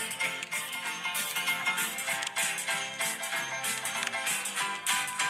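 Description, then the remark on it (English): Bright, busy old-timey piano music from an album, played from YouTube on a computer, plays steadily and fairly loud, with quick bouncing notes and a jaunty rhythm, no voices over it. “There's that old timey piano.”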